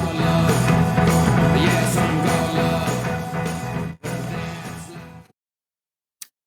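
A loud, driving rock song with steady beats and dense full-band sound plays for about five seconds, then cuts off abruptly into silence broken by a single short click.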